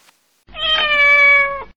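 A single long, insistent cat meow, loud and tonal with a steady pitch that holds for over a second before cutting off. No one speaks.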